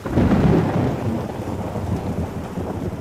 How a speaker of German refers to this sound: Zudem führt aufsteigender Wasserdampf global zu riesigen Wolkensystemen, Sinnbild für die Gewalt der Elemente und mit Gewittern, Blitz und Donner für die Unberechenbarkeit der Natur.